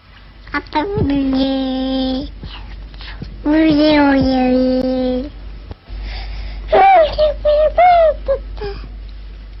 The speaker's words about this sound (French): Voici quatre exemples de babillage de bébés de 10 mois.